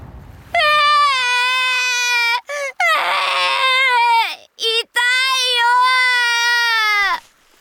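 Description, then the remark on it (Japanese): A voice wails loudly, performing drawn-out crying of an injured rabbit character on a beach, in a few long sobbing bursts separated by brief catches of breath, with no other sounds. “傷だらけのウサギが浜辺で泣いていると大国主の兄たちが通りかかりましたもうウサギが泣いてるぞ”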